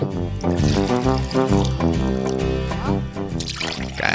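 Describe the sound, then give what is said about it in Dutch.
Water from Ede glugs steadily from a bottle into a glass for about four seconds during a water tasting. The pour is fairly loud, and its pitch rises as the glass fills. “Dan pak ik even de fles met water uit. Zullen we met Ede beginnen? Het water uit Ede? Laten we doen, ja. Ik schenk hem even in.”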